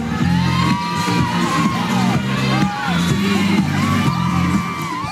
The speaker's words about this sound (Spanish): Pero durante su paseo escuchan a lo lejos un boombox y gente aplaudiendo animadamente, acompañando el ritmo de la música.